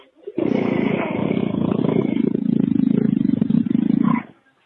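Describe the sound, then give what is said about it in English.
A deep, rumbling growl that opens with a slow bellow and holds loud and steady for about four seconds with a rough, pulsing texture before cutting off abruptly. No one speaks. “That growl's getting deep.”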